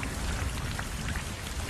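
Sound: heavy rain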